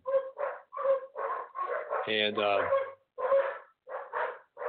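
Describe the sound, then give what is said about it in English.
Poodles bark repeatedly in quick, rhythmic bursts at a home during a live radio broadcast, with a higher yelp or whine in the middle, while a person briefly speaks underneath. “Um, it's live radio here at the Bozo Show, and, and because I'm doing it from my home, sometimes that means poodles get involved.”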